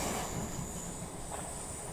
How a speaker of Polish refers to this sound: Pociąg szarpnął i zaczął zwalniać.